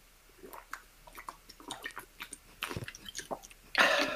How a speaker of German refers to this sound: hat so richtig laut einfach Wasser getrunken. Das ist so.